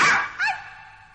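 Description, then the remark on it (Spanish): A single harsh bark bursts out, followed by a short higher-pitched yelp that quickly fades, with no talking around it; a person crouching behind women and barking like a dog about to bite their calves to scare them. “asustar a las señoras agachándose tras ellas y ladrando como perro que va a morder las pantorrillas.”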